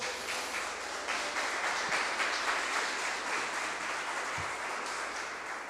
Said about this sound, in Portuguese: E se tem alguém aqui junto comigo, aplauda Jesus bem alto.